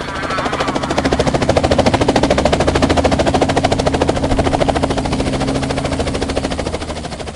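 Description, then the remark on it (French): A helicopter rotor thumps loudly and steadily, its rapid rhythmic chopping continuous over a low engine drone, with no voices. It is a SAMU emergency medical helicopter, called by first responders for a rapid evacuation of an injured person to the hospital in Bayonne. “Très inquiété par les quantités importantes de sang qui maculaient les alentours, les premiers secours appellent l'hélicoptère du SAMU pour une évacuation rapide vers l'hôpital de Bayonne.”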